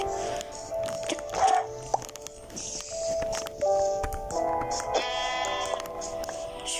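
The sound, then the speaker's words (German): A sheep bleats several times in a row, nasal, wavering cries, layered over a busy backdrop of synthetic video game sound effects. “Ja, ah, da oben ist nur eine Kuh. So, danke. Und ein Schaf.”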